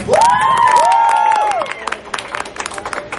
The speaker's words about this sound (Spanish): Muchas gracias a todos que vinieron en cosplay, así que vamos a dar por aplauso entonces. Así que aplausos para el tridente. Ok, aplausos para Mera.